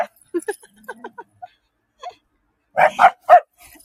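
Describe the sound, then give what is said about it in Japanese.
Light clicking and clattering of two dogs, Momo and Muffin, playing, followed by three loud, sharp barks in quick succession near the end. “カチャカチャカチャって聞こえるかなこれ今ね、マフィンくんとももちゃんの二人で遊んでますね。”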